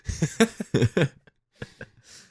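A fairly loud fit of coughing: a quick run of four harsh coughs, a short pause, then two more, ending with a raspy breath in.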